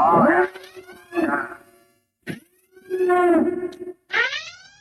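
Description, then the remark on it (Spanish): A loud alarm siren wails in rising and falling sweeps, broken by brief pauses, over a steady droning tone underneath. “Bueno, ya sonaron las alarmas, eso significa que a partir de este instante eh, usted tiene que tener cuidado justamente con lo que vamos a decir.”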